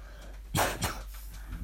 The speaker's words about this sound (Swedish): Förlåt att jag hostar men jag är torr i halsen.